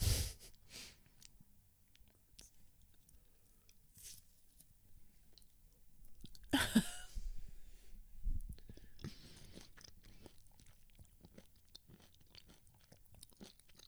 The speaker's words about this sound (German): Doch, ich schmatze ja ganz anders. So, also ich schmatze.